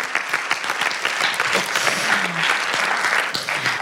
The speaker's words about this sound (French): je voudrais quand même dire bravo et merci à tous les groupes de collage féministes de France parce que les meufs, vous avez transformé l'espace public depuis quelques années et je pense qu'on peut vous ah. applaudir vraiment. Merci.